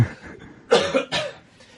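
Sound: cough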